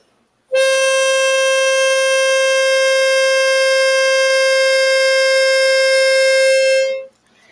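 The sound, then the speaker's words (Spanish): A small Loptuner tuning whistle, bought online, blown in one long, steady note, loud, holding a single unwavering reedy pitch for about six seconds before cutting off, with no talking. “Este silbatito lo compré en internet, se llama Loptuner, no me da nada por promoverlo, pero es maravilloso.”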